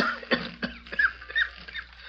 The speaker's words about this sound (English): Consequently, the indistinct figure of a man walking uncertainly down the ship's gangplank seemed to materialize out of nowhere. He hesitated for a moment as he reached the dock, while his body was shaken by a dry, hacking cough.